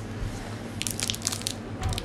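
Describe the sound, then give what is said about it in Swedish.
A big, crisp bite into a strawberry-flavoured snack, followed by a few wet crunching chews, loud with no talking. “Ta ett rejält bett så du får med allting.”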